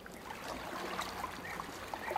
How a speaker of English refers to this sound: The soundtrack to his childhood on tribal land was oars paddling on the Williamson River, the bark of his dog, and at night, the sounds of his grandma praying.